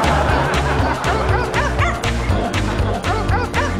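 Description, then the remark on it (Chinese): A voice imitates a dog barking, yapping out a quick string of short, rising-and-falling 'woof' sounds in rhythm over a loud, steady musical beat. “让我们一起学狗叫，一起哇哇哇哇哇。”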